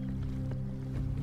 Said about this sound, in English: What's that liquid sound? That is the sound of gasoline.